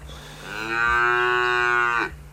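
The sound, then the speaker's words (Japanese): A single long, drawn-out cow moo voiced by a person, rich and droning, holding steady for about a second and a half before cutting off, close and fairly loud, with no talking. “お猿の方ですねちょっと僕は牛です”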